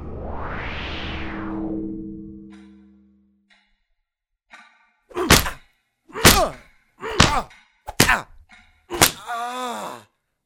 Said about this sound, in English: Please stop hitting me in the face.